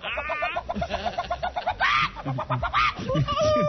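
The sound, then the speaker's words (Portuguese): A person imitates a clucking chicken with a quick run of choppy, high-pitched vocal clucks and squawks, close and fairly loud, with bits of laughter mixed in. “Nossa, eu, eu, eu viro a galinha.”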